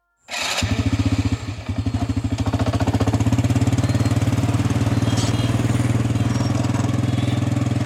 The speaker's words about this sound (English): traveling through the city of Phnom Penh in a covered cart pulled by a motor scooter, a tuk tuk, named for its sound. Tuk tuks and motorbikes fill the streets, occasionally sharing the road with an oxen pulled wagon.